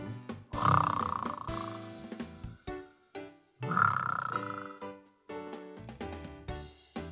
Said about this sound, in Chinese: 咕噜牛爸爸正在打呼噜，呼噜嘛打得震天响。